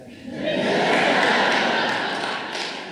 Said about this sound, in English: In case you missed it, that was the sound of a small child uncomfortably stirring in their parents' arms, and it couldn't have come at a better time. I promise you, that was not scripted.